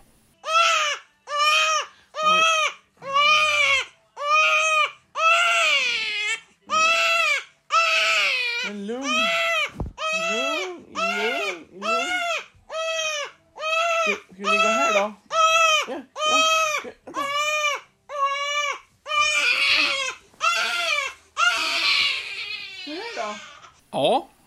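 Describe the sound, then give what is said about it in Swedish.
A baby girl wails loudly in a long run of repeated, rising-and-falling cries, each separated by a short gasp for breath, continuing insistently for the whole stretch. “det var hon som skrek”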